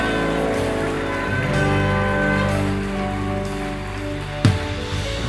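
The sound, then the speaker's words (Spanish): A large church audience applauds loudly and steadily throughout, a dense wash of clapping with sustained music ringing underneath and a brief louder burst near the end. “Dele fuerte ese aplauso y da un grito de libertad.”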